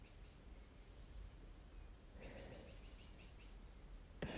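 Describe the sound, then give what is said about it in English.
Faint birdsong outdoors, with a short run of high, repeated chirps partway through over a soft, steady background hiss. No one speaks. “There are birds chirping.”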